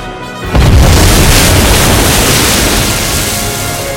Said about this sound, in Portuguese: e provocaram uma grande coluna de água com suas detonações.